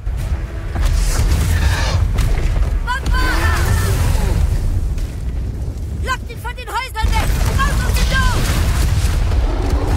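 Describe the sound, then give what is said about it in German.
Magical attack blasts fired by villagers at a giant troll in the market square of a small wizard village: a loud, constant booming rumble with bursts of whistling, zapping tones that sweep up and down in pitch, clustering in quick volleys throughout. “Die Bewohner feuerten sofort magische Angriffe auf ihn ab.”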